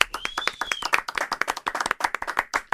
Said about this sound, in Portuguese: por favor, palmas para ela.